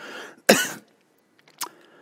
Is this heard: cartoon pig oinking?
no